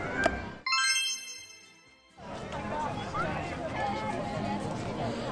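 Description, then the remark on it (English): Busy outdoor crowd ambience in a theme park's Central Plaza outside Sleeping Beauty's castle, with many overlapping voices and general bustle; a bright chiming jingle rings out briefly near the start before the crowd noise swells back in. “As you can hear, we're on uh, Central Plaza now outside Sleeping Beauty's castle.”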